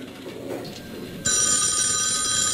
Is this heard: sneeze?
no